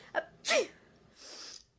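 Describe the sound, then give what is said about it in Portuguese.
A single loud sneeze from a person with an allergy: a short indrawn catch, then a sharp explosive burst, followed by a softer breathy exhale trailing off. No one speaks. “Eu não ficava fingindo que espirrava, eu tenho alergia mesmo.”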